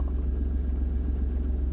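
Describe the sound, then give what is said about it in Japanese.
A steady, deep low-frequency rumble fills the whole clip, the hum inside a car while driving on a commute, constant with no voices or distinct events. “自分に合ってるその録音の場所っていうのが私はまあ車の中だったんですけどでしかもこの何て言うのかな一番撮りやすい環境っていうか、うんと、と自然に撮る環境っていうのが運転中なんですよ通勤中。”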